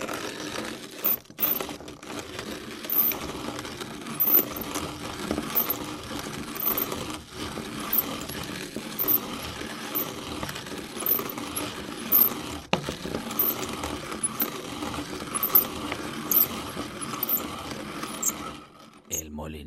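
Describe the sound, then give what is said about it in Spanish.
A manual coffee grinder, the kind that drops the ground coffee into a drawer, cranks steadily for about twenty seconds, giving a dense, gritty crunching with a faint ratcheting rhythm and small clicks, at an even moderate loudness before stopping abruptly. “Otro ejemplo lo escuchábamos también el otro día y era el correspondiente al ya casi extinguido Molinillo.”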